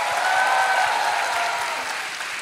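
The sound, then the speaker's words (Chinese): Warm, sustained applause from a church crowd for the young people who performed, a dense steady patter of many hands with cheering voices mixed into the wash, staying loud for the whole stretch and easing only slightly at the end. “给他们热情的掌声吧，加一点欢呼吧！”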